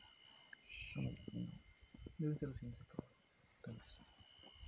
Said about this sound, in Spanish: Ok, se está escuchando gente.